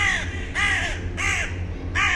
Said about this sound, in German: Ihr stimmt mir zu. die Raben krähen. Stimmen mir zu.